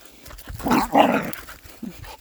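A female dog that just wants to play gives a couple of quick, excited barks with a short growly edge, followed by a softer yip; the tone sounds playful rather than aggressive.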